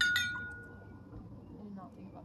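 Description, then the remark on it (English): A single bright glass clink as a glass of water is set down on a hard surface, its clear ringing tone fading over about a second, followed by quiet low rustling. “I just kind of like set some water down.”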